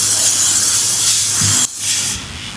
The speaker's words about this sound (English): And hmm, spray down the fucking couch.